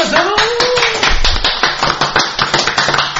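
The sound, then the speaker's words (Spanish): A crowd breaks into loud, steady applause, many hands clapping densely for a few seconds, with a brief voice or cheer audible near the start. “Ese aplauso,”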